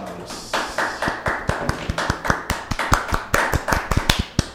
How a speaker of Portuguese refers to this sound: Você que nos ouviu até aqui, você é um guerreiro, você merece palmas.